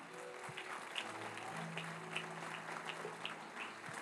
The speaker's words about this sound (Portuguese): Aplauda Jesus, irmão.